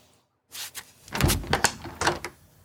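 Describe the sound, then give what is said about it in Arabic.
A door opens to let in a neighbour standing at it: a brief scrape, then a cluster of clattering knocks and rattles from the handle and frame over a couple of seconds, with no voices. “هاي المرة الأرملة اللي فاتحة محل منظفات جت علي واقفة على الباب خليها تفوت”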